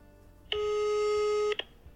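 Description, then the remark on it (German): A telephone ringing tone during a call to a closed hotel's emergency number in St. Anton, Austria: one steady, buzzy electronic tone lasting about a second, fairly loud against quiet line hiss, ending with a brief click. “Nur eine Nummer für Notfälle war an der Tür und nachdem wir extra aus Wien nach St. Anton gefahren sind, um Informationen über den Fall zu sammeln, habe ich da natürlich angerufen.”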